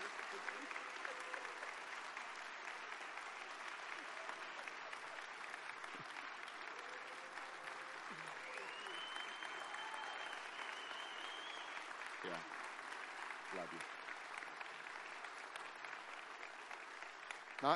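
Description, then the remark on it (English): A church audience claps steadily for the whole stretch in appreciation of their longtime worship keyboard player, a dense, continuous wash of applause with a few faint whoops and voices rising through it. “Church, would you just show her how much you appreciate her?”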